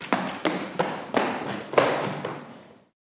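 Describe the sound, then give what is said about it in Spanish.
Running footsteps of someone rushing toward a large elevator: about six quick, heavy thuds at a steady brisk pace over a wash of background noise, trailing off into silence at the end. “Se gira, alguien viene corriendo como alma que lleva el diablo.”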